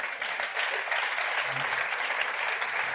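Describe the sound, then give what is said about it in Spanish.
Steady applause from an audience, a dense wash of many hands clapping at an even level for the full three seconds, with no voices standing out. “Podéis aplaudir si queréis, ¿eh?”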